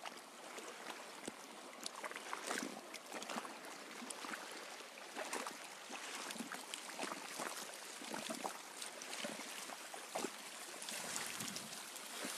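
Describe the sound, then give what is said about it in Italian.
Steady, hissing wash of sea water at the shore near Pola, with small splashes and fizzing bursts as waves break and roll in, continuous throughout and fairly soft, with no voices. “vi faccio vedere che a 4 km da Radha Gopinath c'è un mare splendido, meraviglioso”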